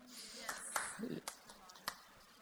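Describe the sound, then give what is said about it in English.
A handful of scattered claps from a church audience asked who is ready to change some habits in their life, roughly four sharp hand claps at uneven intervals, fairly faint, with some indistinct voice murmur in the background. “Like, there are four claps there.”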